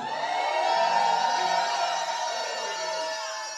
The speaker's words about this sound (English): So I love the crying like that. I love the noise. I love the shouting. Someone give the Lord a shout of victory.